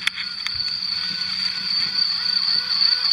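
A queen honeybee pipes in thin, high tones over a low hive hum, answered by a second queen piping, one already outside and one still inside, while a cricket's steady, shrill trill runs unbroken in the background.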